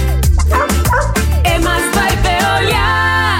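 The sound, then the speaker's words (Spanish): A dog barks and yips repeatedly in quick bursts, loud and upfront, in a public service announcement about picking up after your dog, with a steady sustained backing sound running underneath throughout. “Recoge del piso lo que tu perro hizo.”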